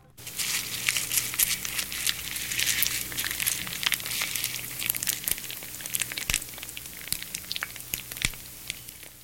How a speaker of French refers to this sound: C'est discret mais finalement très envahissant. Car oui, un crépitement peut devenir très envahissant, voire puissant. Déjà, il y a tous les impacts suraigus qui émaillent la texture pourtant si lisse du crépitement plein de haut perché,